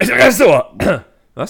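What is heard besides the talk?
sneeze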